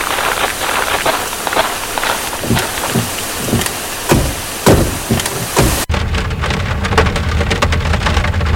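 Heavy rain pours down steadily in a thunderstorm in a cold forest, with loud drops and low rumbles. Near the end the downpour suddenly turns muffled and duller but keeps going.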